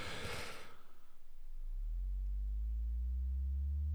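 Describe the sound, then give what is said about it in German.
A soft, low sine tone played on a theremin swells in after a brief noisy burst, gliding slowly upward in pitch and sustaining smoothly to the end, with no voices. “Alles ist dieser weiche Sinuston.”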